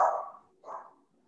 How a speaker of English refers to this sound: I am so sorry that dog is barking.